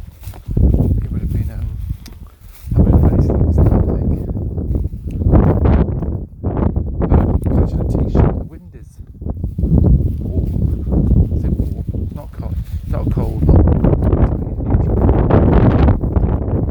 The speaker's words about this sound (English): But yeah, this weather's just bonkers. And now it's weird today. Is It's windy.